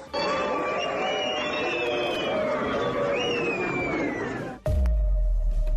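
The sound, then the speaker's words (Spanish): A large crowd at an event in Mexico roars with sustained booing while shrill whistles rise and fall across it, jeering the Mexican Secretary of the Interior; a loud, dense wall of jeering that cuts off abruptly near the end into a low rumble. “pues así, así le llovieron eh, chiflidos, abucheos al secretario de, Gobernación, la grilla desatada también de cara a 2024.”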